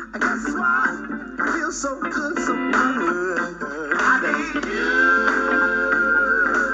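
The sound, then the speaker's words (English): Music plays loudly and steadily from a third-generation Echo Dot smart speaker turned all the way up to max volume, with a boxy, slightly compressed tone and a sustained melodic line toward the end. “That's as loud as it gets. Back to the third generation dot.”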